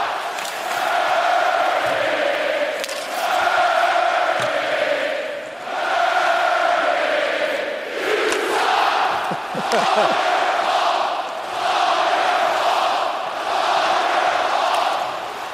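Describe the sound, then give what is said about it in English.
A large hockey arena crowd in Nashville chants "it's all your fault" in unison after Nashville's second goal, the loud rhythmic phrase repeated in waves with brief dips between, echoing through the arena with scattered shouts and thuds underneath. “that chant is, it's all your fault.”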